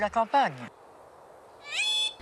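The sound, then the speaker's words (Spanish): Pet birds calling in a Parisian apartment in the late 1970s: a quick series of loud, squawking calls, a pause, then a longer, sustained piercing cry, with no talking. “En este reportaje de finales de los años 70 se la ve en su apartamento parisino rodeada de sus hijos y algunas aves.”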